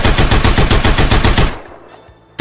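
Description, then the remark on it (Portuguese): Bursts of automatic gunfire outside in Boné, recorded on a mobile phone at a window of a home: a loud, rapid burst rattles for about a second and a half, fades into echoing quiet, then another sharp shot cracks out at the end. “Vocês vão ouvir as rajadas de tiro que estão rolando aqui no boné.”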